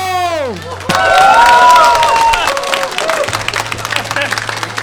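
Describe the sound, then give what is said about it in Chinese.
Audience applause at a recording of the comedy show 站着说 (Zhanzhe Shuo), breaking out after a brief falling gliding tone, a dense steady wash of many hands clapping, mixed with a few cheers and whoops, continuing loudly to the end. “好，各位亲爱的朋友们，让我们用最热情的掌声有请今天的喜剧迷”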